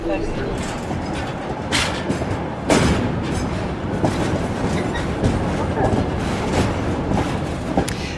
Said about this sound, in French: Le son du train sur les rails, on l'entend derrière nous. Hein, c'est vous qui avez enregistré ce son euh, du, du Transsibérien. C'est une sonorité, un rythme intéressant